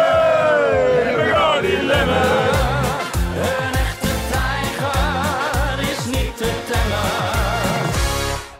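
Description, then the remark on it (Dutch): A loud crowd of cycling fans at Bocht 7 bellows a boisterous drinking song, 'Ik ga zwemmen in Bacardi Lemme, een echte tijger is niet te temmen', over a thumping, steady party beat, voices wavering together nonstop for several seconds. “een klein fragmentje uit zijn nieuw favoriet stukje literatuur dat hij gisteren leerde kennen dankzij Bocht 7”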